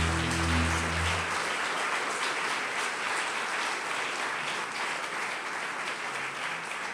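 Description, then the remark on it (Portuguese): An audience breaks into sustained applause for the Lord after singing, a dense, steady roar of many hands clapping that holds for several seconds, with a low sustained tone fading out at the start. “Vamos aplaudir o Senhor, vamos.”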